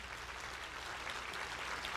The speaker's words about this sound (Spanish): Si hay alguien aquí que lo cree, que le dé un fuerte aplauso